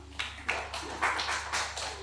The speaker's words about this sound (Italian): E questo è l'applauso di salute.